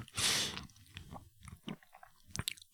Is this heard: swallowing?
yes